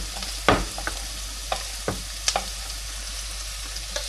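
Carrots and onions sautéing in a pan: a steady, fine sizzle runs throughout, broken by a handful of sharp scraping clicks as the vegetables are stirred. No one speaks.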